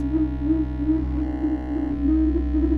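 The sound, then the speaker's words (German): A steady electronic sine tone from a sine generator, driven by sensors reading a TV simulator's pulsing, flickering light, hums continuously with a faint wavering pulse, layered over a deep low drone; no voices, just the sustained synthetic tone for a few seconds. “Jetzt hört man eben, wie das, äh, das Licht da pulsiert und flackert.”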